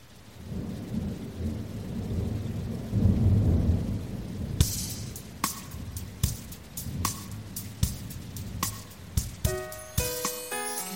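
Rain pours steadily with a deep rumble of thunder rolling through the first few seconds, then sharp drips and light tapping hits begin, joined near the end by faint tinkling tones.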